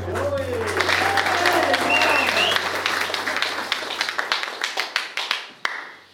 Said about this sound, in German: Zu wenig Applaus, ist ganz klar.